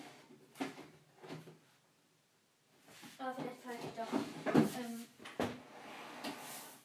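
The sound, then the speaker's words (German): A large drawer under a bed, full of many things, slides open or shut with a scraping, rattling rumble, followed by clattering as the things inside shift, while a person talks quietly. “Ich habe so unter meinem Bett so eine riesen Schublade.”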